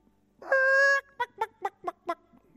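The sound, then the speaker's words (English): A voice mimics a chicken: one drawn-out, nasal squawk followed by five quick, evenly spaced clucks, fairly loud, with no other talk around it. “Wait a little while because you've been like chickens in the coop”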